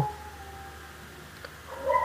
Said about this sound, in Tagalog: Uh, sorry sa background. Kasi may aso kami.